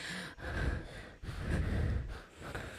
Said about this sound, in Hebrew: כן, אני נושם, אני מתנשם, אני מצונן כל הזמן, אני אשכנזי נורא. אני מקנח את האף, יש לי נייר טואלט צמוד אליי.